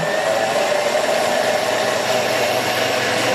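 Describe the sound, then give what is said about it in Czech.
A blender mixes hot soup in a stainless steel jar: a steady, loud motor whir runs without pause, a dense mid-to-high drone with a faint rattle. No one speaks over it. “Bude rakot, budeme mixovat.”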